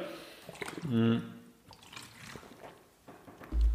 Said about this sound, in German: So, jetzt gibt's wieder für mich kurz einen Schluck Wasser, dann gehen wir direkt zum Lebensbereich 4.